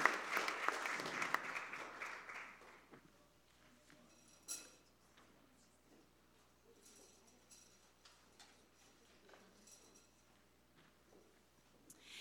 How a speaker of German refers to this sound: ihr dürft sie mal mit einem ganz warmen Applaus willkommen heißen.